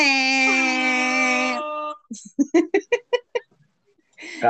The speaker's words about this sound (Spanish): Pero bueno, te, mando un bocinazo de amor.